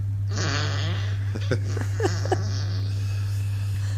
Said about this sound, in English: Alexa, do a squeaky fart. Here comes a squeaky fart.